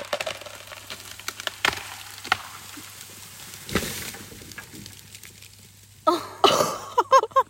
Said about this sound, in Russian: А здесь такое вообще часто происходит? Просто только что с огромной ели рухнула огромная ветка. Просто огромнейшая ветка.